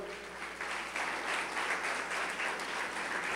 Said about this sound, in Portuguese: Você pode dar uma salva, salva de palmas para o Senhor?